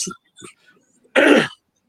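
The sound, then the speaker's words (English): A person clears their throat: two short, soft grunting catches followed by one loud, raspy, forceful clearing about a third of a second long. “I just want to say, clear my throat for a second.”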